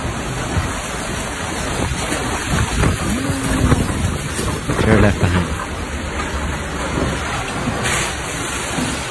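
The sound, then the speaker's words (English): Heavy rain and gusting wind from a fierce storm in Switzerland form a dense, unbroken roar, with a person speaking briefly over the noise. “It's the high temps that get the headlines, mm-hmm. not the weird, intense storms.”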